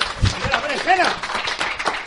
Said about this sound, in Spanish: Un aplauso para el público.